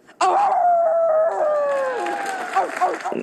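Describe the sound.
A loud wolf howl holds a long, steady tone that slowly sinks in pitch, then breaks into a few shorter rising and falling howls before cutting off.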